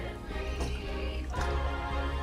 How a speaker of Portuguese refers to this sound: Calma, vou beber água.